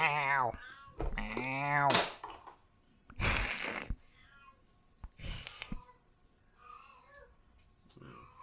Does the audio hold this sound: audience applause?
no